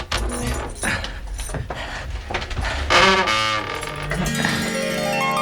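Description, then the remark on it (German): Keys jingle and scrape in the lock of a dresser door as it is unlocked, a steady metallic rattling that carries on for several seconds with no one speaking. “muss man vermutlich mit dem Schlüssel das Schloss dieser Kommodentür öffnen.”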